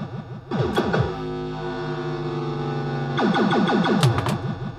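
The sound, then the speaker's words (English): A pinball machine's saucer sound: a loud, buzzy electronic bass effect with rapid zigzagging pitch sweeps at the start and end, and a sustained droning tone in between, no talking. “And let's go for the saucer. Really cool bass sound here.”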